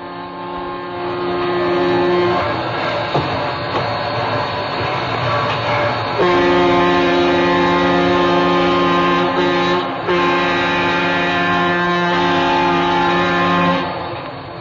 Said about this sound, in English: Now, that sound is the sound of a really powerful diesel locomotive. I mean, really laying it out.